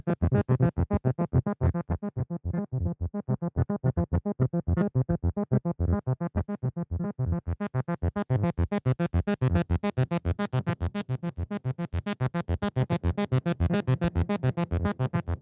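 An instrument played through a reverb effects pedal: a faster sequence of steady, repeated notes with a washy tail, growing brighter and fuller halfway through. No one speaks.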